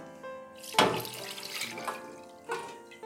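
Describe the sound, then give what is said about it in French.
Syrup pours steadily back into a saucepan after pears are taken out into a container, opening with a sudden splashy gush, then a continuous wet trickle, a brief surge near the end and a few faint drips. No one speaks. “Les poires, on va les mettre dans un récipient et le sirop retourne dans la casserole, tout simplement parce que ce sera plus facile pour tremper nos biscuits et bien les imbiber comme il faut.”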